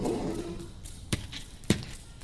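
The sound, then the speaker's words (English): Hammering: two sharp, solid blows land a little over half a second apart, each a punchy thud with a bright crack, after a low murmur fades at the start. “Keep hammering.”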